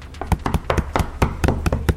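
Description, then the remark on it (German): Rapid, uneven pounding on two doors, roughly a dozen heavy thuds in two seconds, loud, with no voices over it. “Also, es hämmert an die Türen. An beide.”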